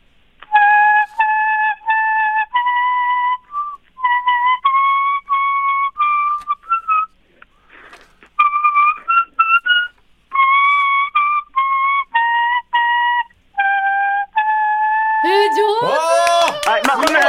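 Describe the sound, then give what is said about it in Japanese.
The song Furusato played as a folk melody on a leaf whistle made from a small yabukouji (Ardisia japonica) leaf held in one hand, its bright, reedy tone carrying clear sustained notes in phrased runs, loud, ending in a burst of noisier, wavering sound. “小さなあんなすごく小さな草でしたねあんな葉っぱでなるんですねはい、やぶこうじの葉っぱを今日はね、使いましたけども。”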